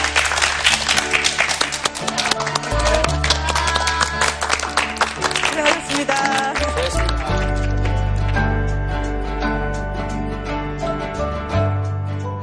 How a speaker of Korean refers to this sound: 오늘 수고해주신 두 분께 감사의 박수를 전해드립니다. 고맙습니다.